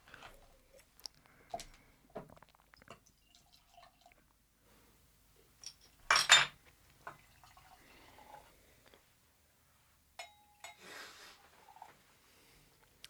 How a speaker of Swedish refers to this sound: Så ni kan väl få ta en skvätt utav den varianten också. Jag kan öppna flaskan.